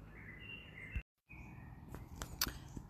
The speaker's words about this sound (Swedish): Jag vet inte hur högt det hörs i bakgrunden att det kvittrar och har sig. Det är väldigt mycket fågelliv här.